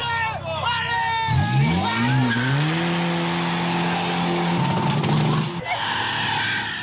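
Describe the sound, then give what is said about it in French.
A car engine revs hard and climbs in pitch as tires squeal during an impromptu burnout contest in a parking lot aisle at a car gathering in Hauts-de-France, France. Loud, with crowd chatter and noise throughout, before the engine drops off near the end. “Plus loin, un concours de burn s'improvise dans une des allées du parking.”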